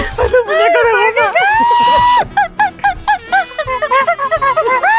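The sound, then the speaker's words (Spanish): A squeaky toy horn honks repeatedly, loud and nasal, with rising and falling pitch, first in a few drawn-out blasts and then in a quick run of short honks. “Esta bocina.”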